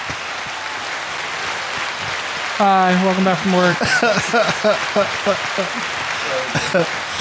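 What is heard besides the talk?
one person clapping hands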